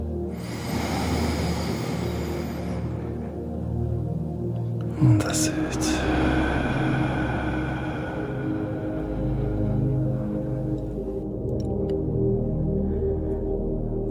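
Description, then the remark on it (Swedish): A slow, deep breath is drawn in, airy, over soft sustained background music that continues steadily afterward with a brief rustle partway through; a last deep breath taken together before beginning a meditation. “Och vi tar ett sista djupt gemensamt andetag innan du inleder din meditation.”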